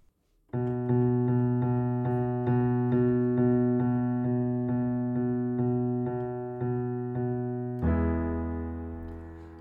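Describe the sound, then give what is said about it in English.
A solo piano strikes the same chord over and over in a steady, even pulse, each hit ringing and fading slightly before the next, then shifts to a lower chord at the end. “I think I'll do, do it on the piano.”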